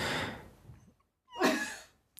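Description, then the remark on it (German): One sneeze: a soft breathy intake, a brief pause, then a sharp, loud burst of air with a short voiced edge that fades quickly. No talking. “Gesundheit.”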